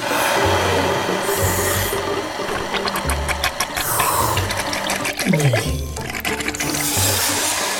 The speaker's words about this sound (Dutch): Hij slurpt een grote teug water in zijn slurp. En dan spuit hij met een grote stroom water het spuitgat van de walvis weer helemaal schoon.